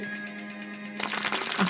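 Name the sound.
applause sound effect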